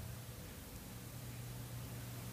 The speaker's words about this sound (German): Ich, ich höre es nur rascheln. Also wahrscheinlich hört er uns jetzt auch gar nicht mehr zu.